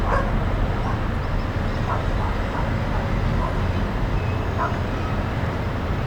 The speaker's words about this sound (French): Ceux qui n'en finissent pas d'aboyer.